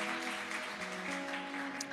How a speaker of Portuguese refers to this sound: Se você pode, aplaudir a palavra do Senhor nessa noite e fica de pé.